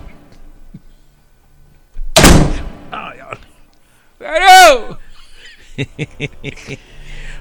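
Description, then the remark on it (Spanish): A door is yanked shut with one loud bang, followed by a strained vocal cry and some brief, choppy voice sounds afterward. “sí jala, espérate, sí, jala la puerta en la cara, espérate, espérate.”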